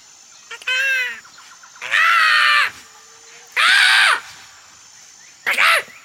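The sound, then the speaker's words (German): Four loud, harsh bird screeches ring out at uneven intervals, each a shrill, strained cry with a menacing edge, over faint background hiss and no talking. “Ist es ein Spatz? Nein, es ist zu laut für einen Spatz.”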